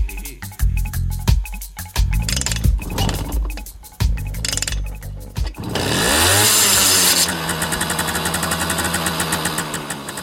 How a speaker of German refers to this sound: Sonja fährt Motorrad, total klasse ja.